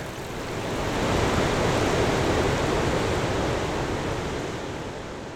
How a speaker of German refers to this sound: Wichtige Vertreter sind hier aber vor allem die vielfältigen Wasserlaute, wie Quellen, Wasserfälle und Bäche.